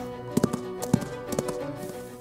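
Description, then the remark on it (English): Several hollow, muffled knocks from plungers stuffed with cloth and a little tape, struck in an uneven clip-clop rhythm as a sound effect imitating horse hooves, moderately loud with no talking. “This is what we use for horse hooves. They're plungers and we stuff them with cloth and a little tape.”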